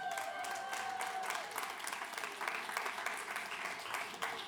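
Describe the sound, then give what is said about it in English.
An audience applauds for vitamin G (gratitude), a dense wash of many hands clapping at an even level throughout, with a faint tonal whine early on and no speech over it. “Clap it up for vitamin G.”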